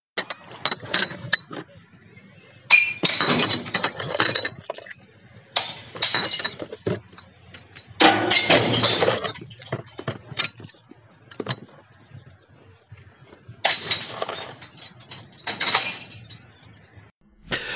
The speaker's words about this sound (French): j'étais au conteneur près chez moi et j'ai déposé les, quelques bières que j'avais posées dans, dans le conteneur